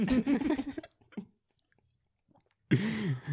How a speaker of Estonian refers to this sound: ma närin iseennast nüüd närige ka teie